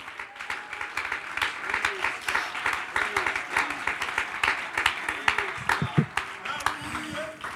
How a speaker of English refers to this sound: If you believe that with me, clap your hands unto the Lord.